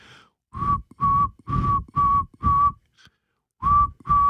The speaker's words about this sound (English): That's an owl? That's a saw-whet owl, yeah.